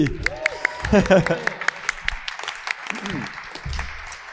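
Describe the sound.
A small audience applauds with scattered, uneven hand claps that continue steadily throughout, while a few voices talk and call out over the clapping.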